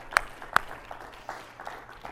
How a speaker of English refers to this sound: If you believe that today, why don't you clap your hands right where you are?